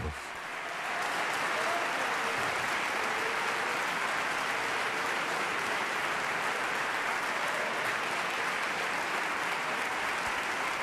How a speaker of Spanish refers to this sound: Aquí escuchamos este aplauso, esta ovación que están recibiendo desde el escenario del Teatro Colón. Escuchemos esos aplausos. Imaginemos que estamos con ellos.